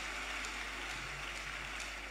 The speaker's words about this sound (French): Est-ce que tu applaudis, les enfants les, enfants, ils applaudissent.